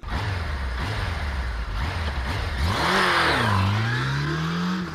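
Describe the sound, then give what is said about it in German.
A Honda CBF 1000 motorcycle engine idles with a low rumble, then revs up sharply around the midpoint, its pitch rising and wavering before holding at a steady, louder drone. No voices are heard. “Was ihm half, war sein Glaube und sein Motorrad. Mit letzterem, einer Honda CBF 1000, war er zehn Tage unterwegs, kam bis nach Rouen in Frankreich und fuhr an der Atlantikküste und am Ärmelkanal über Calais, Belgien und die Niederlande wieder zurück”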